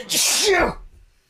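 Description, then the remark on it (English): A single loud sneeze with a sharp burst of hiss that trails into a short voiced tail, followed by quiet. “Bless you. Thank you.”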